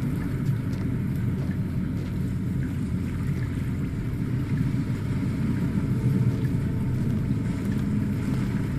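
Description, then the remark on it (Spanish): A steady, deep roar of sea waves washes continuously, a dense low rumble with a slight swell in loudness partway through as it grows louder and closer, with no voices. “Cada vez oigo el mar más fuerte. más cerca.”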